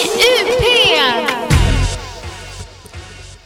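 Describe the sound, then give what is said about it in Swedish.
A warbling electronic telephone ring signals an incoming call, trilling loudly for about a second and a half, then gives way to a low rumbling hum that fades out. “Det ringer, det ringer.”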